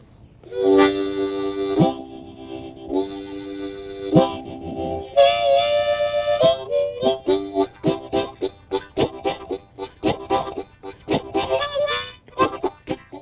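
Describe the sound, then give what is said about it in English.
A Buddhist monk on a porch plays a blues harmonica to imitate a passing train: a few long, wailing chords give way to a fast, rhythmic chugging of short breathy bursts, fairly loud and with no talking. “And they try to they try to make that sound come out of their blues harmonica. And, and this is uh, this is a sound that I got when I tried to make the train happen for me.”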